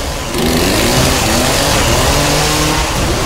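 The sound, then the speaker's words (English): A chainsaw revs loudly and continuously, a harsh buzzing engine roar with rising and falling pitch that holds steady for about three seconds after a brief quieter start. “A chainsaw to a gun.”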